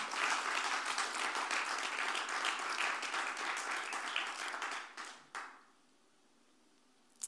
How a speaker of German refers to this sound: Aber seid, seid ganz lieb gegrüßt aus Vorarlberg und hey, geben wir doch den Innsbruckern einen Applaus. Ich hoffe, ihr könnt es hören.